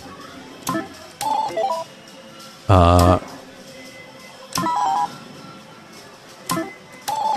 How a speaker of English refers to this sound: I feel like it doesn't sound enough like Mr. Do. I, I, I, like these are just slot machine noises. There's nothing fancy about this.